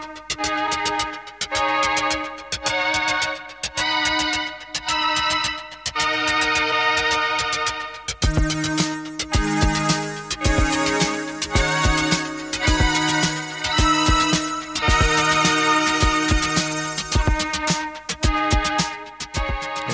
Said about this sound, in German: hört man die Eisenbahn ja schon gleich am Anfang. Ne?